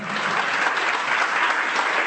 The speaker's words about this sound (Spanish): gruñón se lleva buenas palmas.